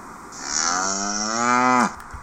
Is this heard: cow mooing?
yes